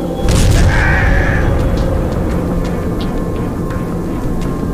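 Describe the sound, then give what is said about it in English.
A damaged cannon weapon with a ruptured power core explodes in Freeze's hands as he pulls the trigger, a sudden, loud boom, followed by a heavy rolling rumble and scattered crackles that linger for several seconds without fading much. No one speaks. “He aimed the cannon once more. I didn't need to dodge as he pulled the trigger. It exploded in his hands.”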